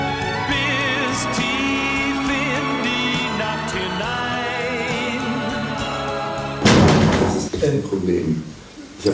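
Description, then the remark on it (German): A door thuds shut with a heavy bang as people pass through it backstage at a hockey stadium concert venue, its echo fading quickly, after several seconds of busy background voices and tonal sound. “gefragt, ob man die Tür irgendwie verkeilen kann, aber das geht halt nicht.”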